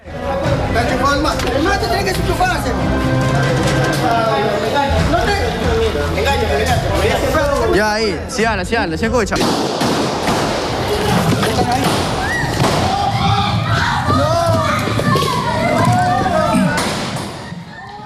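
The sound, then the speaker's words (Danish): Chaotic, loud commotion as masked men armed with guns ready to fire storm a TV station's studio in the city of Vajakil, Ecuador, several men shouting and screaming over one another, heavy thuds and bangs mixed in, continuous throughout. “med råben, som man kunne høre, skrigen og ikke mindst øh, skudklare våben i hænderne”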